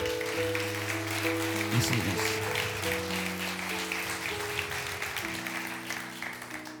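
A crowd applauds steadily throughout, a dense, even patter of clapping layered over sustained organ-like keyboard chords that shift pitch every second or two.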